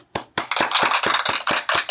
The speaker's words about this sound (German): Kriegst du direkt einen Applaus von mir.